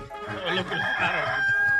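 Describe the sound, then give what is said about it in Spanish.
A rooster crows once in a long, strained call that rises and holds a bright tone before trailing off, fairly loud, with faint background noise underneath. “tenía una señora un gallo que estaba cante y cante el gallo y el vecino se enojaba.”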